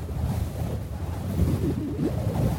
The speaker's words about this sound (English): Roofs in Arizona take a beating, the sun cooks them, the wind pulls at them.